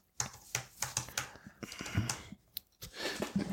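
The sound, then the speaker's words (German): Rapid, uneven clatter of computer keys being typed, fairly loud, with short bursts and brief pauses between strokes and no voices. “Die Tastatur ist noch ein bisschen komisch hier.”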